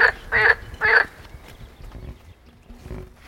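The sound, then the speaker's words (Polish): A large frog sitting in grass croaks in three loud, rasping bursts in quick succession, followed by a few fainter, scattered croaks against quiet outdoor background. “Tam na wprost siedzi. Widzisz, duża żaba taka, o.”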